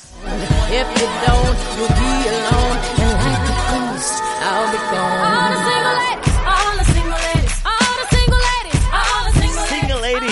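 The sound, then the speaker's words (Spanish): A pop song plays loud and steady, with a sung vocal melody gliding over layered instruments and a regular beat. The mood is wistful and melancholic. “Pero, no, es de tus canciones, estas melancólicas y, de nectarina.”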